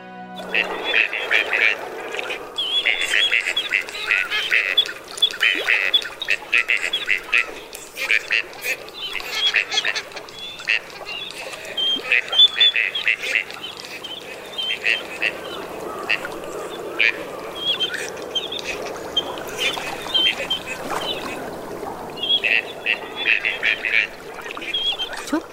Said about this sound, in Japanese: 鼻にかかったようなウェウェという鳴き声オカヨシガモです全長およそ50センチ頭から首が茶褐色脇腹は細かい縞模様でお尻が黒い